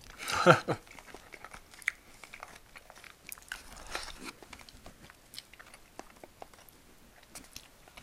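Wet chewing and crunchy bites from someone eating a convenience store bento during a lunch break, with an irregular mouth-noise rhythm and occasional clicks, heard on its own with no talking.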